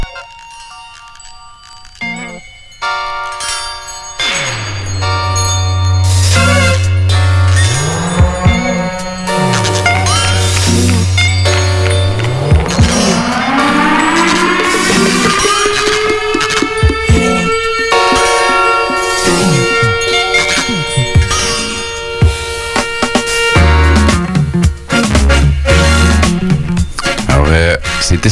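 A 1977 funk track, used as a sample, plays on its own, a deep repeating bass line under bright sustained chords, with a long upward-gliding tone swelling midway. It stays steady and fairly loud throughout.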